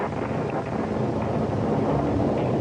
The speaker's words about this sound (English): Little winds were rattling around the stairwell and through the high, hollow halls. One minute the storm seemed vague and remote, and the next minute like another plant coming down through the roof.